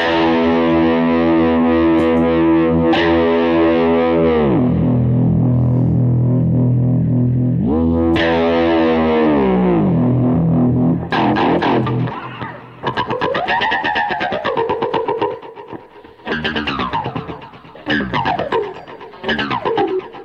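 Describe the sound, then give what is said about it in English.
A loud, distorted electric guitar run through a pitch-shifting pedal held pressed all the way down by foot to keep it in pitch, notes swooping and bending up and down in long sustained glides, then choppier rapid bursts with warbling pitch toward the end. “I gotta keep it pressed all the way down with my foot like this to keep it in in pitch.”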